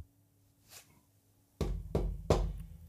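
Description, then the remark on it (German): A faint, light tap is followed by three loud, sharp knocks on a small wooden door, evenly spaced, with no voices. “Die kleine Tür führt zum Reich des Hauselfen. Torben klopft einmal an.”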